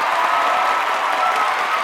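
A canned applause sound effect played to welcome a guest: a dense, even patter of many hands clapping at constant loudness throughout, with no voices standing out.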